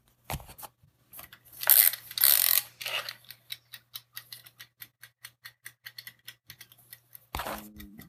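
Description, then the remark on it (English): A mechanical wind-up timer is wound to 20 minutes with a few loud grinding, ratcheting twists, then ticks steadily and quickly before a sharp clunk near the end. “Let's wind up the timer.”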